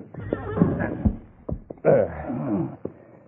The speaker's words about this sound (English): Need that horse. Good. Steady there. Steady there. That's it. Here. Here, horse. Good.